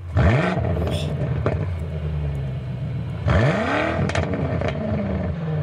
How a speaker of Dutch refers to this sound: Ja, dat is de vernieuwde 4.4 liter V8 motor hè, met 602 pk. Afrond. Ja. 750 Nm koppel.